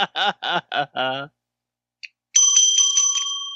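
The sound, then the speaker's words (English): A few bursts of laughter, a short pause and a small click, then a bicycle bell marked 'Ring for a Kiss, Ocean Isle, NC', kept next to a couch, rings loud in a rapid trill that rattles on for over a second. “Willie's got the bell still.”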